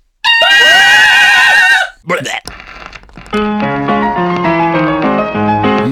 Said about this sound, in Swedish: Tack för idag, power metal-skrik!